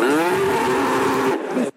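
A cow moos once during milking, in a long, loud, steady low call with a rich harmonic tone, holding for over a second before cutting off abruptly. No one speaks.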